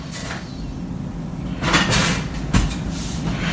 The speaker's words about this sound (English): And you can hear the fryer.